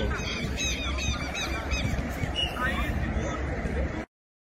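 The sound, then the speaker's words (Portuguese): Shrill, harsh calls of a southern lapwing (quero-quero) repeat rapidly for about four seconds over a steady background rumble, a noisy flurry of strident cries that cuts off abruptly into silence. “Quero que uma vez eu estava num campo lá vendo um treinamento, quero, quero, desse não veio para cima de mim, cara.”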